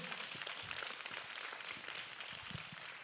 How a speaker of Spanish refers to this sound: Vamos a darle un fuerte aplauso a Dios por su presencia en esta tarde.